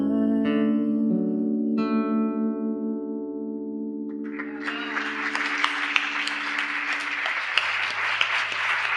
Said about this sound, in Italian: sentilo questo applauso, portalo con te.